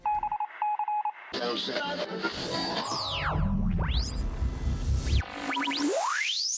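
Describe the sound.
A radio tuning effect: a few short beeps, then loud crackling static with whistling tones sliding up and down and snatches of garbled voices, ending in a rising whine.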